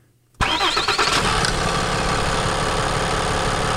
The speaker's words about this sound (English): There's that click. That's, that's the five nine, the mechanically injected from the very first Ram